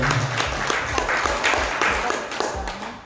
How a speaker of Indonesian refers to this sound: Sekali lagi aplaus tepuk tangan untuk kita semua